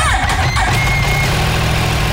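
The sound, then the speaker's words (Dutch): A 2016 Yamaha R1 motorcycle engine, cold and just started for the first time after purchase, rumbles steadily at idle, a loud, continuous low drone with a faint whine rising briefly near the start. “Hij is gekocht, hij is aangeschaft en eh, ik heb hem voor het eerst gestart.”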